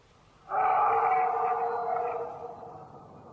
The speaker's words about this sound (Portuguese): aí eles ouvem um rugido hum. e temos o, o primeiro ataque do lobisomem. Rugido não, um puta uivo. de um uivo.